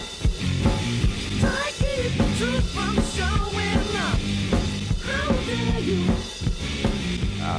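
A loud, raw garage rock song plays throughout, with driving drums, distorted guitar and a strained, wailing lead vocal riding on top of the dense, steady mix.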